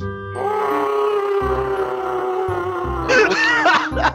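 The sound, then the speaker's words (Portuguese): An agonized scream voiced for a role-playing game character whose sword arm is torn off, loud and drawn out for about four seconds, holding a strained, tonal pitch before cracking into a harsher, raspier burst near the end. “foi o melhor grito de agonia que o RPG Next já providenciou pra mim.”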